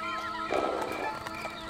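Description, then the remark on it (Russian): A horse whinnies with a rising, wavering neigh while hooves clip-clop in an uneven rhythm, both clear with no one speaking; the horse has been hobbled and let out to graze at night in a dense forest. “Спутал коня, отпустил его пастись”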